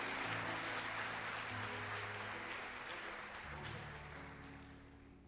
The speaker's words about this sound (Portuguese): Pode voltar para o lugar de vocês. Vamos aplaudir, gente, em nome de Jesus.